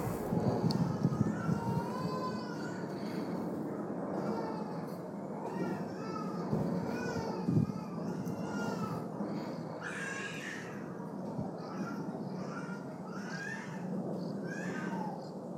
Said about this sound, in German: Ja, nicht, dass ihr denkt, ich habe was gegen Kinder oder Kindergeschrei. Nein, nein, nein, nein. So ist nicht, aber irgendwie in der Nachbarschaft ist jetzt irgendwie ein Säugling und ähm, sicherlich soll der schreien auch, aber ich weiß nicht.